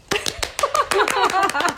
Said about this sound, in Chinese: 来，在此应该有点掌声。